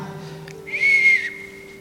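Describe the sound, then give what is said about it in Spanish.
Someone whistles one long, steady high note, swelling louder in the middle and then holding more softly until the end, with no talking. “Pero era la manera que él, se manifestaba. empezaba a silbar.”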